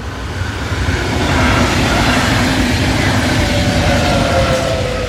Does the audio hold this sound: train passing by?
yes